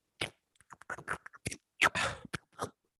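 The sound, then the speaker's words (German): A voice imitates perch smacking at the water's surface with a quick, irregular run of wet clicks and smacking mouth noises, fairly loud, with a couple of longer splashy bursts near the end. “Also äh, siehst du jetzt auch kein Mädel in mir Busch hocken, sondern das sind die Barsche, die ja schmatzen.”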